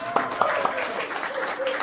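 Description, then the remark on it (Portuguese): Brief applause from a group, with a few sharp, loud claps standing out early on over a steady patter of hands, while voices murmur underneath. “Palmas.”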